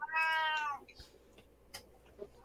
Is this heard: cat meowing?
yes